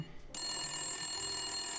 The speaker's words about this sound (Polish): Bzyczenie muchy zagłuszył metaliczny dźwięk dzwonka telefonu. Który z Was panowie odbiera?